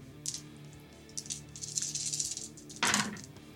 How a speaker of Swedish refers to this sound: Då får du slå sex stycken tärningar först och främst, så får vi se vad som händer där.